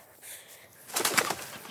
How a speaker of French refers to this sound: ou un pigeon.